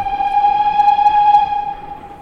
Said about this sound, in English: that's the train the Dartington train